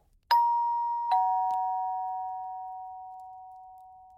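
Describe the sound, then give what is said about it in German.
A doorbell at a home's front door chimes twice in quick succession, a bright ding-dong whose two tones ring on and slowly fade out, clear with nothing else around it. “Zumindest kann ich mich nicht mehr an die folgenden Stunden erinnern, bis es plötzlich an meiner Haustür klingelte.”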